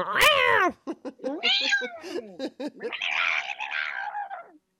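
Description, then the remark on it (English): Someone mimics cats screaming at each other in the middle of the night: a run of loud, wavering cat-like wails and short squawks, ending in a long, raspy screech that fades out. “What's that noise they make in the middle of the night? oh yeah, when they're screaming at each like other.”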